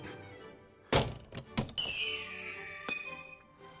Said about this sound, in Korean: 어부가 상자를 연 순간 쿵 하는 소리와 함께 연기가 새어나왔고 연기에 휩싸인 어부는 호호백발의 할아버지가 되고 말았답니다.